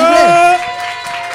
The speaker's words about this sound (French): Nous sommes à Saint-Denis, au 6B, pour ces portes ouvertes du 6B, justement, où on est aussi en public. Donc, euh, des applaudissements,